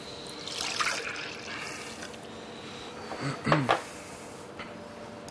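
Liquid trickles and splashes as it is poured back into 0.2-litre glasses, with a faint rising gurgle early on and a brief louder burst of pouring and glassy clinks later.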